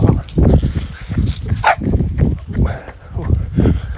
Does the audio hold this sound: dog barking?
yes